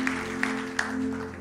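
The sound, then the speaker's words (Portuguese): An audience claps together in a steady rhythm to applaud God, three crisp synchronized claps standing out over a sustained, humming low musical tone. “Vamos aplaudir nosso Deus, vamos aplaudir.”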